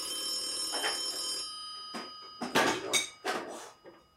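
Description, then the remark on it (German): A FaceTime call ringtone on a phone chimes with steady, bright tones for about a second and a half, followed by several short rustling, clattering bursts, with no one speaking. “Klingelt das Telefon? Warum klingelt das Telefon? Oh. Ist das ein FaceTime-Anruf?”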